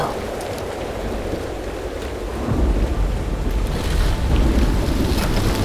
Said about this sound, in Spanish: lluvia es tan fuerte que lo está inundando todo.